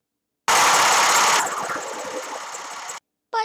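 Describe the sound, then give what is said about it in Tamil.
A voice imitates a passing lorry engine with a loud, rough, breathy roar lasting a couple of seconds that eases slightly midway, then stops, followed by a brief short vocal burst. “என்ன அது பெரிய சத்தம் ஓகே ஏதாவது லாரி போயிருக்கும் பட் லாரி இப்படி தானே போகும் அந்த லாரி இப்படி தானே போகும்”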